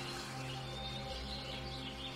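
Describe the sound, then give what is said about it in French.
A whole group of seagulls call faintly, their cries drifting over a steady, low background hum, with no one speaking. “Les mouettes ne vont pas la suivre tout le long de notre périple.”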